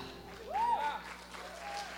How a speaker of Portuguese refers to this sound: aplauda ao Deus desse lugar, Ele é fiel. Aleluia.